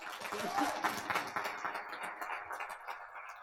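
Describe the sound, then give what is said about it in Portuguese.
Audience applause during a sermon, a dense steady patter of many hands clapping that holds for a few seconds and then eases off slightly, with faint voices mixed in. “Dê um aplauso para a vida do irmão Márcio.”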